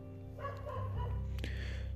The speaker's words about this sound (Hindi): यार कुत्ता बहुत भौंक रहा है सॉरी फॉर दिस अगर आपको आवाज़ आ रही होगी कुत्ते की